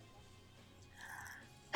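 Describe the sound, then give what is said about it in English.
A faint, brief intake of breath builds up, then a sudden loud sneeze bursts out right at the end, cut off abruptly. “Sorry, I had to sneeze.”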